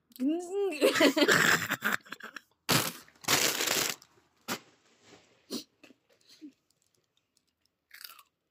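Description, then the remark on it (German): Loud, crunchy chewing in a handful of sharp bursts, some longer and grinding, others quick snaps, after a voice laughing and vocalizing at the start; quieter mouth sounds trail off at the end. “Aber jetzt sind wir Essgeräusche.”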